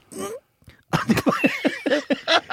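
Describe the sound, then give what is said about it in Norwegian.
A voice imitates how people suppress a sneeze: one breathy burst, a brief pause, then a quick run of about seven pinched, squeaky little bursts, fairly loud. “Det verste jeg veit, er når folk kveler nys.”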